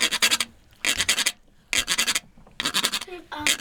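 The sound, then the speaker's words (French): A handmade instrument imitates the croaks of another species of frog with four bursts of rough, raspy scraping in a steady rhythm. Each burst is made of quick ridged pulses, and a short voiced sound comes at the end. “Il y a les petits, les mamans, les papas de grenouilles.”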